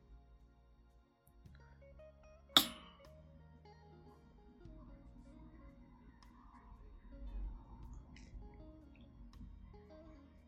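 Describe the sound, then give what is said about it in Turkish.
Two beer bottles knock together in a toast with one sharp, bright clink, followed by quieter handling and sipping noises against a low background murmur. “Şey vuralım mı artık biraları birbirimize. Vuralım ya.”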